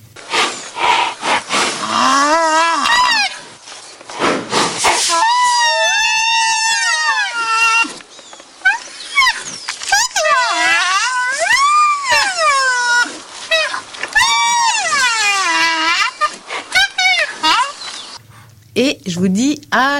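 A baby white rhinoceros whines in a long series of loud, high-pitched squealing cries that rise and fall, each call wavering for a second or two with brief pauses between.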